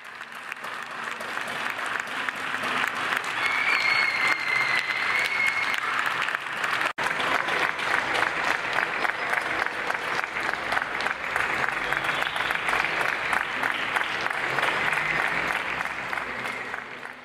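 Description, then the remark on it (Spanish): Sustained applause from a large audience in a video by Julia Barbañ for the Poesía Viral art project, played on Radio Primavera Sound, dense and steady hand clapping filling the whole stretch, with a brief whistle near the start and a momentary dip partway through. “El aplauso, en sentido estricto, el hecho de palmear, es un fenómeno bastante universal.”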